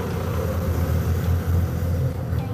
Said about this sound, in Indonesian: Cuman uh, aduh ini truk berisik banget.